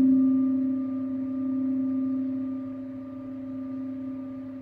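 A sustained tone from a singing rin bowl rings steadily during a lying-down yoga meditation, its pure layered overtones humming evenly and slowly fading over several seconds, with no voices present.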